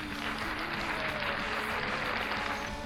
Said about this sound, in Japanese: いつもいつも自分で自分に送る温かい拍手、えー、自分で盛り上げていこうというね、えー自分の機嫌は自分で取る、えー、そんな、えー、ポッドキャストでございます。